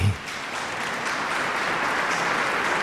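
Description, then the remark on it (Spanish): A large crowd, including the new bishop's mother in a wheelchair, applauds steadily in a reverberant cathedral, welcoming the bishop as he goes to the episcopal seat to take possession of the diocese. The dense clapping is sustained and even throughout, with a brief low thump at the very start. “y es acogido con ese aplauso.”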